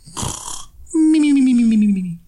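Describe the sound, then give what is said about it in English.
A person mimics a cartoon-style snore: a rough, raspy inhale, then a long, clear whistling exhale that slides downward in pitch. It is fairly loud and on its own. “in Hanna Barbera and maybe some of the Looney Tunes cartoons that they would snore like”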